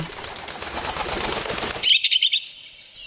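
A bird flies in with a burst of loud, rapid wing flapping lasting nearly two seconds, followed by a quick series of high, bright chirps.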